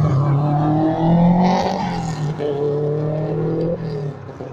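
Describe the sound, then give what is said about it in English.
A Subaru Impreza's engine drones steadily with strong low harmonics, its pitch rising and falling as it drives past, shifting slightly midway as though changing gear, fading a little at the end. “there's a, a Scooby going by.”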